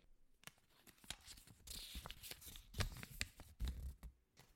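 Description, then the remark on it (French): Cards bearing quotations being shuffled and drawn from a pile, two picked from about half a dozen, a run of quick papery flicks and soft slaps, fairly quiet with no talking. “Nous allons te faire piocher deux citations parmi une demi-douzaine sur le numérique et la participation citoyenne.”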